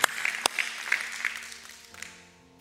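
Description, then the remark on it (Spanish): A church audience breaks into loud, dense applause for the Lord that thins and fades over a couple of seconds, with a few sharper claps, while soft sustained keyboard tones linger underneath at the end. “Dale el fuerte aplauso al Señor.”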